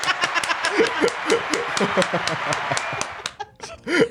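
Rapid, steady hand clapping rings out for several seconds alongside bursts of laughter, then thins to a few scattered claps at the end.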